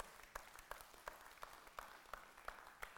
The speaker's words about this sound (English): Give him a hand clap.